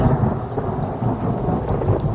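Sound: thunderclap with rain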